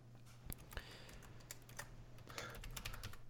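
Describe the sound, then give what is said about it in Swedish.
Rapid, irregular clicking of keys on a computer keyboard as someone takes notes, fairly quiet, with a steady low hum in the background and no voices. “Jag sitter, jag sitter och antecknar så att jag kommer ihåg det här sen.”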